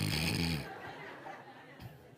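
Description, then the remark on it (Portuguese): A voice imitates an exaggerated sniff: one loud, forceful, snorting nasal burst lasting under a second, followed by quieter breathy noise and a faint short catch of breath. “Eu estou vendo que os vizinhos vão tudo ficar doidos, porque vai ser uma fungação dentro de casa.”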